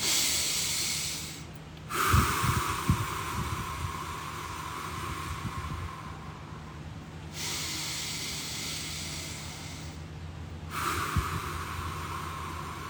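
Slow, deep pranayama breathing demonstration: long, drawn-out inhales and exhales with an airy, hissing rush, each lasting several seconds, separated by brief pauses. No talking.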